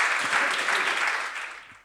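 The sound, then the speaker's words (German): A crowd claps steadily, a dense wash of many hands that fades slightly toward the end, with no voices rising above it. “Wenn es so war, könnt ihr gerne klatschen.”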